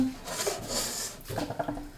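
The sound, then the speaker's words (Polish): A lid is set down over a frying pan of sauce: a soft scraping, rubbing rustle followed by a few light metallic clinks as it settles. No one speaks. “Przykryję całość pokrywką”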